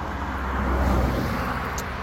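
A car rolls past with a steady, rushing road rumble that swells slightly in the middle and then eases off, a broad whoosh with no voices.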